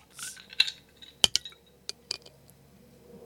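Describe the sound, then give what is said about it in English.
Drinks of ten percent alcohol by volume being opened with an opener on a countdown: a short fizzy hiss, then a handful of sharp metallic clicks and glassy clinks scattered unevenly over a few seconds, with no one talking. “All right, let's open this thing up.”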